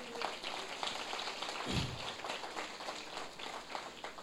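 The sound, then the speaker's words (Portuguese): A church audience applauds in praise of Jesus during a sermon, many hands clapping in a dense, steady crackle that holds evenly for about four seconds, with one low thump partway through. “Ah, vale um aplauso a Jesus por isso?”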